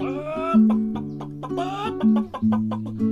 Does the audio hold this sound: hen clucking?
yes